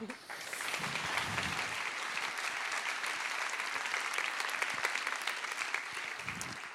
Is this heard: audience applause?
yes